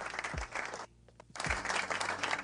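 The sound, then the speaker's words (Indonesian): A small group claps together in a studio in two steady bursts separated by a brief pause with a few stray claps. It is moderately loud, with no talking. “Ah, nak tepuk tangan ini gini.”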